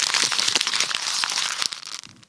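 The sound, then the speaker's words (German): A sheet of paper is crumpled, a dense run of crackling, crinkling bursts for about two seconds that trails off softly at the end, with no voices. “So, dann ist dieses Blatt komplett zerknüllt gerade, wie du dir vorstellen kannst.”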